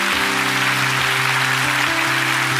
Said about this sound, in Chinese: 我们再一次把荣耀掌声归给我们的神，好不好？